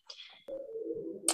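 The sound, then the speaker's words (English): Muffled keyboard notes from a band practicing upstairs, heard from a basement: a brief higher tone slides away, then a steady mid-pitched note is held for about a second before a short burst of noise. No one speaks. “Yeah, um, firstly, apologies if you can hear a band practicing upstairs.”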